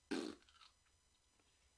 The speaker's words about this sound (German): Hier ist das Geräusch eines Pups.